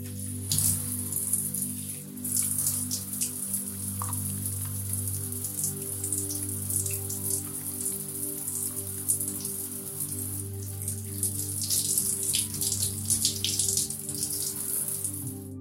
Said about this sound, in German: wenn wir morgens unter der Dusche stehen. Wir spüren das warme Wasser über den Körper fließen, anstatt über den nächsten Termin nachzudenken.